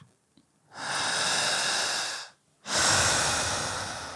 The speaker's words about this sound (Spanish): Fijamente viendo al lente de la cámara, quiero que hagas algo parecido, muy similar a un suspiro de amor.